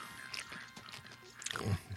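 Crunchy chewing of nuts, a run of irregular bites and grinding crunches over about two seconds, fairly quiet and with no talking.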